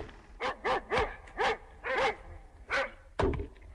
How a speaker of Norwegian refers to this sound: og hundebjeffing.